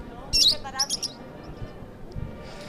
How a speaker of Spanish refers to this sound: Cantándole al Señor, dice, que es un canario que está aquí.